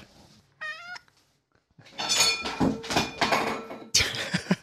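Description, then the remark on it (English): A cat gives a brief chirping trill, then a run of loud, drawn-out meows, three or four in quick succession, with no talking over them. “Speaking of cats, hold on. Oh, come here, you fat angel. Why don't you say something?”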